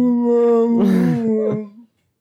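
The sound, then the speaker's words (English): A single drawn-out, eerie whale-like call from a space whale in Star Trek Discovery, a steady moaning tone rich in overtones with a brief rough swell in the middle, heard alone and trailing off after about two seconds. “Also, space whales.”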